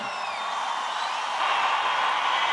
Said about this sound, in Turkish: Salondan alkışlar yükseldi.